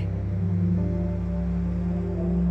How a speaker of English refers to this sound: See the brilliant white light of the moon illuminating the night and pooling light on the surface of the water before you. Begin to become present with the tides gently rolling in and out before you.